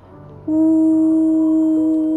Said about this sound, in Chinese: 然后他拉响了汽笛